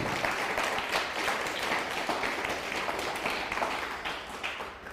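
Steady, dense applause from a crowd, many hands clapping at once in a continuous bright crackle that holds its level for several seconds before easing slightly at the end.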